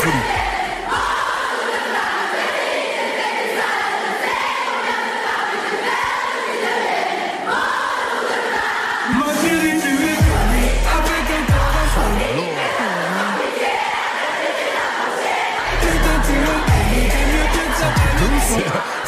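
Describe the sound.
A loud concert crowd in Guyane (French Guiana) cheers and chants continuously, a dense wall of voices that holds steady throughout. Partway through, booming bass-heavy music and a sung melody rise over the roar.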